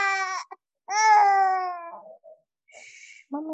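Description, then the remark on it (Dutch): A baby boy cries loudly in several bursts, with long high-pitched wails that strain and break, separated by short gasping pauses and a few softer whimpers. “Maar nu lijkt het wel heel hard te krijgen.”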